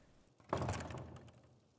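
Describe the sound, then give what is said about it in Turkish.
A heavy door swings shut with a single solid thud, followed by a short rumbling, reverberant fade, as attendants close the door on Rüstem. Fairly loud, with no voices. “Ağlar kapıyı medet bekleyen ifadesiyle Hürrem'e bakan Rüstem'in üzerine kapattılar.”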